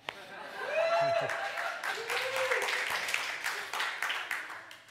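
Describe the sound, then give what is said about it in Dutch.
An audience applauds for about five seconds, a steady, fairly loud crackle of many hands, with a couple of rising vocal whoops and scattered crowd voices mixed in. “Ik vond dat eh, hele grote applaus heel tegenvallen, maar...”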